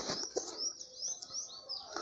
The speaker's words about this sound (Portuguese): Os passarinhos estão a cantar. Em todos os locais eu escutei eles cantar. Os passarinhos cantaram com alegria.